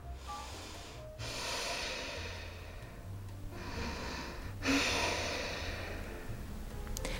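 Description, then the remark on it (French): Deep, slow yoga breaths drawn in and pushed out exclusively through the nose, loud, with a rushing, hissy airflow. Several long inhales and exhales follow one another with brief pauses, and no talking. “Quand je fais du yoga, j'active cette énergie vitale en inspirant et en expirant exclusivement par le nez. Donc je fais comme ça.”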